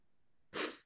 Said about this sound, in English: try not to sneeze